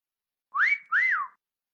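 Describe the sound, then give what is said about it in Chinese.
A soft two-note whistle given to call a small pet fox-dog, each note a short, clear tone that rises and then falls in pitch, with a tiny gap between them and no talking. “说完，王昭君轻轻的吹了一个口哨，一只拳头大小的狐狸犬立刻从围墙外面飞了进来，迅速落到了他的肩头上。”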